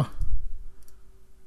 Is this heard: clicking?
yes